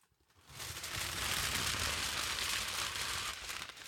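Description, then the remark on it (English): A sheet of aluminum foil crinkles and crumples continuously as a man puts it on as a foil hat, a dense, bright crackling rustle that starts after a brief quiet moment and carries on steadily to the end. “He has a sheet of aluminum foil.”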